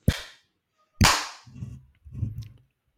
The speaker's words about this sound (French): Est-ce que si je bah. tape dans les mains, ça le lance, tu crois Vas-y.